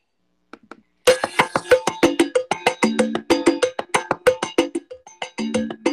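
A recorded song starts playing loudly after a couple of faint taps, with a steady percussive beat like a cowbell driving bright, rhythmic notes and no voices over it.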